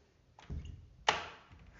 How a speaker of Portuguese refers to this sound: Deixa eu fechar a porta.